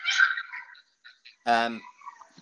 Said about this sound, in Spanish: Entonces, perdón, perdón lo que se escucha, ¿eh? pero en realidad es la perrita de mi hija que está, está llorando.